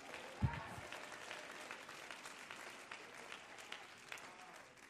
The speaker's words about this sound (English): Clap your hands and thank God for the church.